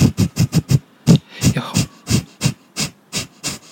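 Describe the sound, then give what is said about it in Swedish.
A voice demonstrates a breathing exercise of quick, sharp exhalations through the nose, about fifteen short puffs in a steady rhythm with a brief pause partway, fairly loud. “alltså, korta, korta alltså, ut med näsan bara liksom.”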